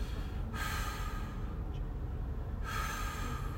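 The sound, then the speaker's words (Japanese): A voice imitates the quiet breathing of a creature sensed beyond a watering place as the mist cleared, in the nature of Iwate: two slow, airy breaths, each lasting about a second with a pause between, and no talking. “そのバーッと霧が晴れてて水場所がバーッと見えているその奥一番奥にですね、息遣いを感じるんですこう生き物のっていう。”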